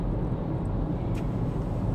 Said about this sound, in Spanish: Eso es lo malo de grabar en la calle, que como que veo carros y veo cosas y voy cagada, porque yo siempre voy cagada, que aquí la gente maneja como una mierda